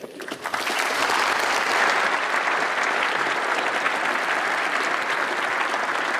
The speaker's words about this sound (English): But do put your hands together for Bill.